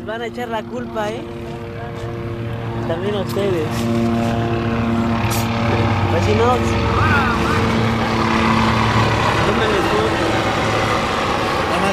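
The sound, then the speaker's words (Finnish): A helicopter shining a powerful searchlight hovers overhead, its steady rotor and engine drone loud and continuous for the whole stretch, with indistinct voices mixed in underneath. “Tämä on todellinen näytelmä, sanovat miehet ja epäilivät, että helikopterista otetaan valokuvia samalla kun seisomme sen voimakkaassa valokiilassa.”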